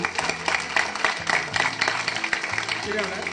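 A crowd applauds steadily, a dense crackle of many hands clapping at once with no pauses, while voices murmur and call out underneath.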